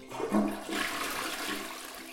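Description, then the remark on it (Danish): A toilet flushes with a rushing gush of water that swells quickly, then settles into a steady, hissing swirl as the bowl drains and refills, with no voices present. “På toilettet. Måske du bare trækker ud og så ikke tænker mere over det.”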